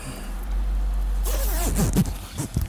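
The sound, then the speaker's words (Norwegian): A jacket zipper is pulled shut in one quick, rasping run lasting about a second and a half, over a steady low engine-like rumble, as a person closes the jacket over a microphone placed on the shirt. “Så jeg skal bare sette den her, for jeg tenker at hvis du bare lukker igjen jakka di,”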